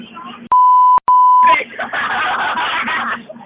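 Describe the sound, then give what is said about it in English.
Two loud, steady censor bleeps in quick succession, each about half a second long with a tiny gap between, cutting into a stretch of talking that resumes right afterward. “When we're done, I'm gonna take out all the background noise, and then I'm gonna um put in a bunch of beeps on a page.”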